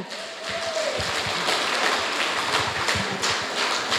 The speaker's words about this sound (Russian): Ваши аплодисменты, друзья.